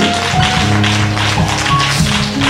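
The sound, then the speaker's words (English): An audience claps steadily in praise, a dense, continuous patter of many hands at a loud, even level, with sustained low musical tones humming underneath. “Come on, give God a clap praise.”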